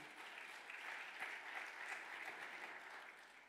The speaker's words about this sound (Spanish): Dale un otro aplauso fuerte al Señor.